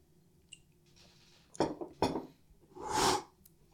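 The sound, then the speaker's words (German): A faint, bright clink of drinking glasses touching in a toast, followed by a couple of dull knocks and a longer breathy slurp or exhale, with no talking. “Und ich glaube, du hast auch das passende Getränk mitgebracht. Lass uns erstmal kurz anstoßen”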